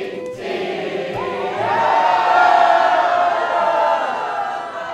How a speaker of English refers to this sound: The crowd on the boat finishes belting out the national anthem a second time, when suddenly everyone rushes to the railing.